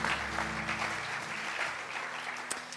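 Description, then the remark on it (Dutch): An audience claps for the band in a steady, dense, continuous burst of applause, with a low sustained tone lingering beneath at first; no one speaks over it. “Come on, we give the band a hand.”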